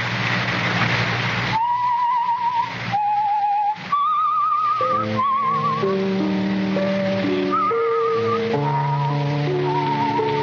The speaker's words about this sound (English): You, uh, you whistle yourself like that very often. Yes. Especially when I'm working on a new composition.